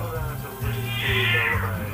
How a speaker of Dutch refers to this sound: Zo, is de poes boos? Nee, hij wil, hij wil aandacht. Zo, hoor eens even zeg. Hij wil, eruit. Hij wil eruit, hij, wil, hij wil naar buiten.